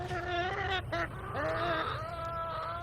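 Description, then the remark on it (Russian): A rooster clucks, calling a hen over a grain it has dug up, in a run of four drawn-out, nasal calls, fairly loud, with short gaps between them over a steady low background rumble. “Выйгры без ямкі зярнятка і кліча курочку, Ко, ко ко ко ко”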